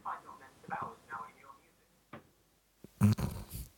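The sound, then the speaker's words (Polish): A phone's Siri voice assistant, on a phone lying by a wall behind a clock, speaks a short, quiet phrase on its own after hearing something like "Hey Siri", followed by a click and a louder burst of handling noise. “Mój telefon leży przy ścianie za zegarem i y, moje Siri chyba właśnie usłyszało, że ja powiedziałam coś w stylu Hey Siri y, i zaczęło do mnie gadać.”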